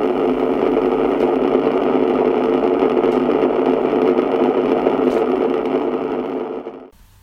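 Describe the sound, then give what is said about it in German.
Steady, even hiss of pink noise generated by a 17-volt GAZ diode from the GDR, with a soft, low-weighted rush, holding constant for about seven seconds before cutting off abruptly. No voices. “Rosarauschen-Diode GAZ 17 Volt DDR.”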